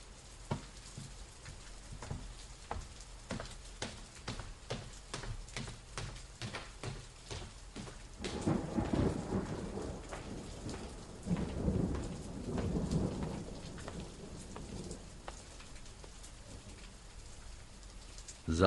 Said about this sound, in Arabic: في ليلة كما الليلة هذه رعد مطر شرتنا خرجتنا من السرايا انا واخواتي وبابا